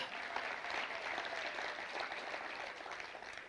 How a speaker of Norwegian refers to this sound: Dette er min måte å egentlig oppmuntre lydmenn på. For de gjør en kjempejobb. En applaus til lydfolka.